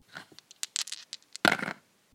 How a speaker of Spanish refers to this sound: Hemos llegado a una casilla que nos pide que lancemos los dados y cayeron en